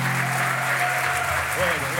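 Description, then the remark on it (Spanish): An audience applauds God, hailed as the King of Kings and Lord of Lords, in a steady, dense wash of clapping that holds at an even loudness throughout, with faint voices rising beneath the clapping. “Pero no estás aplaudiendo a cualquiera.”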